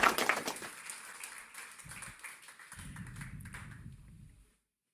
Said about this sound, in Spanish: Darle un aplauso fuerte al rey. Porque Él prometió estar con nosotros.